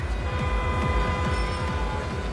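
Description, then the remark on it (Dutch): A tram rolls by on a city street, a steady, loud rumble with a rapid rhythmic low clatter of wheels on rails throughout. “Auto's, bellende mensen, muziek, overkomende vliegtuigen, trams.”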